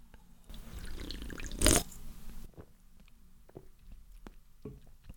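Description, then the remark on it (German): Someone takes a sip of a drink: soft wet slurping and liquid sounds, a louder gulp in the middle, then a few faint clicks and small mouth noises with no talking. “Was, denkt da mal bitte ganz kurz drüber nach, während ich einen Schluck trinke.”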